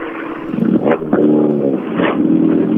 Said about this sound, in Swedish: Ja, en ilsket ylande C2 kommer över Andviken här och tar sig i mål.